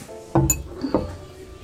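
A teacup clinks against its saucer as someone drinks tea: a light chime with a brief high ring, then a second softer knock, over quiet background with no talking.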